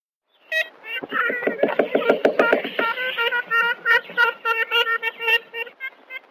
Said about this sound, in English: Now, it was what, 1935 that another team from Cornell made the only recording we have of a live ivory billed woodpecker.